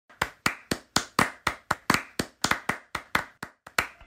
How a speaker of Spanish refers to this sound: Federico, un aplauso para Federico.